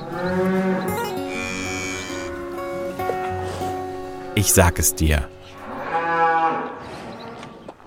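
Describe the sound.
A cow moos loudly, with drawn-out lowing calls at the start and again near the end, and a person speaks briefly between them.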